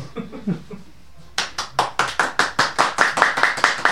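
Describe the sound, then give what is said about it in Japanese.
Sparse applause from a small audience at a rakugo performance: a steady run of crisp, evenly spaced claps, growing slightly quicker and louder, after a brief stretch of faint murmuring. “少しばかりの拍手ありがとうございます”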